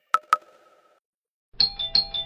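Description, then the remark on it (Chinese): A hotel room doorbell rings with two quick chimes that trail off into silence, then a brighter, higher electronic chime repeats rapidly in a pulsing pattern. No voices are heard. “这时门铃突然响了，我被吓得心脏几乎要跳出来。”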